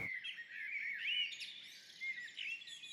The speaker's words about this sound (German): Hübsches Vogelgezwitscher bei den Aufnahmen. Ja? ja, ja, wir hatten die Fenster auf.